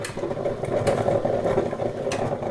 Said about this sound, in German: Es duftet nach frischem Kaffee. Im Hintergrund blubbert die Kaffeemaschine.